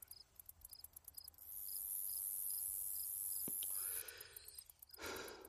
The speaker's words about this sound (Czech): Slyšíš to ticho? To mírný ticho našeho lesa? To strašidelný ticho? Zkus poslouchat. Slyšíš, jak se kymácejí větve stromů?